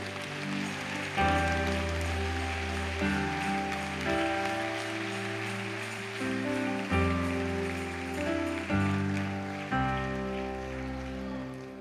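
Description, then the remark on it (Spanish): An audience claps steadily in a dense, continuous patter that lasts throughout, mixed with sustained instrumental music whose held chords shift every few seconds underneath. No one speaks. “¿Por qué no podemos dar un aplauso ahí?”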